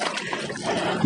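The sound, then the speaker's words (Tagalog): Steady sloshing and swishing of water as a person walks through floodwater, with a continuous churning splash and no clear separate steps; a louder splash comes at the very end. “at naglalakad ngayon ako sa ano”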